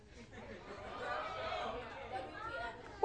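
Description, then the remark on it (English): An audience chatters all at once in a steady, overlapping murmur of voices, moderately loud, with a short sharp sound right at the end. “That's what it seems like because you guys can't be quiet.”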